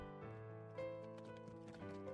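Hooves of a ridden horse clip-clop at night in a steady, moderately paced rhythm, set against a sustained, tonal musical backdrop that stays fairly loud throughout.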